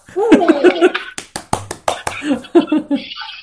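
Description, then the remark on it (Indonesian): A quick run of about seven sharp hand claps of applause, briefly interrupting a person talking, who resumes speaking right after the clapping stops. “tapi mengelola komunitas terbesar di Semarang tepuk tangan”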